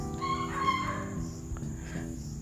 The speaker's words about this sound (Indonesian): Kedengaran nggak sih? Suara anjing nggak sih itu? Oh anjing itu.